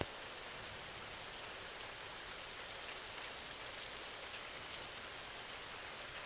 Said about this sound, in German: Lausche dem Regen während du immer tiefer in einen erholsamen Schlaf gleitest.